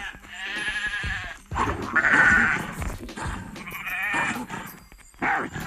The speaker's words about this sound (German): Für dich ein paar Schafe.